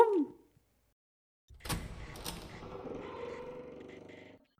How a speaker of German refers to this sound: Aber jetzt machen wir hier mal die Tür zu.